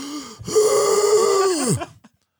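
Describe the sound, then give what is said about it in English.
A person imitates a maid who has just recovered from COVID gasping for breath: a short intake, then a long, raspy, wheezing pull of air that rises and trails off, fairly loud, with no other talking. “She's like in the room, can't breathe.”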